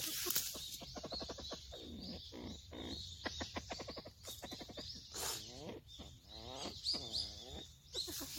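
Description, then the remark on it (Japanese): A long-tailed male copper pheasant gives its alarm call at people digging wild yams in the mountains: repeated bursts of sharp, rapid chattering notes, loud, with short pauses between volleys and no voices. “これは警戒の声を上げて、チッチッチッと泣いていらっしゃるそうですが、どうやら尻尾がすごく長くてね、オスのような、オスなんですよね。”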